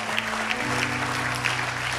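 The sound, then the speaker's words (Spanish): A church audience applauds the Lord during a sermon, steadily, a dense wash of many hands clapping with a few sharper claps standing out, over a low sustained organ-like tone. “Dele el fuerte aplauso al Señor.”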